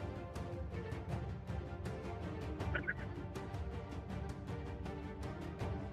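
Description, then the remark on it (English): Harsh, rattling bird squawks and gobbling calls fill the whole stretch, loud, with rapid repeated bursts and a brief higher chirp partway through; no one speaks. “Answer me, bird.”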